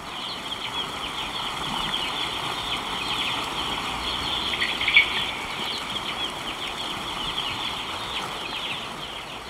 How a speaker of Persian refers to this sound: این گوشه توی لونشون دارن جیک جیک میکنن خیلی نازن جوجه ها حالا یکم به صدای جوجه ها گوش کنیم با چشمای بستمو قشنگ نیست؟ جوجه ها میگن چیک چیک چیک چیک آره همینطوری